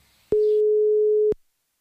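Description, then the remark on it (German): A single telephone line tone sounds on its own as a call to a Bulgarian reporter is placed: one steady, loud, mid-pitched beep lasting about a second, starting and stopping with a soft click. “Wir wollen heute rausgehen mit einem äh, Anruf äh, eines äh, bulgarischen Reporters.”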